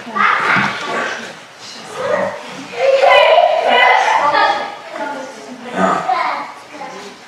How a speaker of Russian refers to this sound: Дети так шумно кричат.